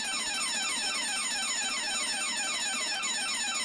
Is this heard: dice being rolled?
no